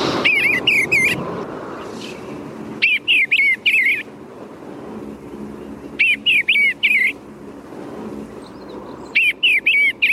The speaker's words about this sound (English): One of the most beautiful songs in the bird world is the sweet chortling song of the male eastern bluebird.